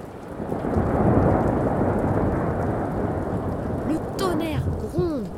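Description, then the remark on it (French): A thunderstorm rumbles with deep, continuous thunder over steady pouring rain, loud, with a few brief squeaky whistling sounds near the end. “le lac se déchaîne et tous les pirates regagnent leur poste pour maintenir le cap dans la tempête.”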